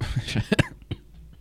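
A short run of quick coughs, several harsh bursts in a row, then a brief pause and one final softer cough, with no talking.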